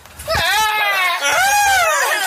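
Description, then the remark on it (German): A person's voice mimics a frantic, hysterical goat bleat, two shrill, wavering cries in close succession, loud with a quavering, strained pitch. “Das ist, auf das ist so wie die Ziege. ja, das war noch ein bisschen hysterischer. Die war so.”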